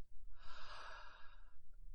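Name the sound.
deep gasping breath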